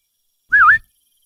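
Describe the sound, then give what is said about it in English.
A person gives a single short whistle, a bright tone that dips down and rises back up in a quick wavering swoop, lasting about a third of a second with silence around it. “Somebody whistled next to him.”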